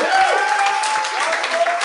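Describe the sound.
An audience claps steadily for about two seconds, a dense, even wash of many hands at a fairly loud level, with faint voices and a thin high tone threading through the noise.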